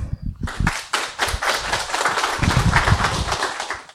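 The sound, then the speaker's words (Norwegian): An audience breaks into warm applause as a professor from the Norwegian School of Economics in Bergen is invited onto the stage, many hands clapping in a dense, steady patter that stays loud and even throughout, with no voices over it. “En varm applaus.”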